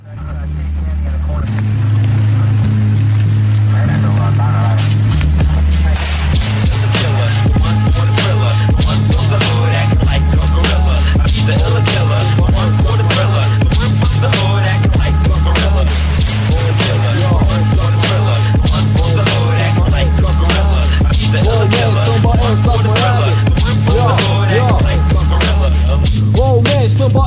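A rap track plays, starting with a thumping bass line before a rapped vocal enters over a steady, heavy beat that continues loudly to the end.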